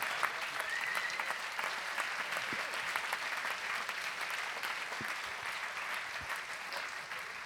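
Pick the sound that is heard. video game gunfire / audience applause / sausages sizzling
audience applause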